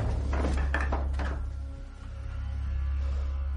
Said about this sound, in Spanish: Abren una puerta.